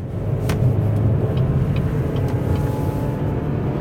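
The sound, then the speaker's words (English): A car accelerating to pass a slower vehicle: a loud, steady low engine rumble with road roar that holds for a few seconds, with no one talking. “And let's get past this slowpoke.”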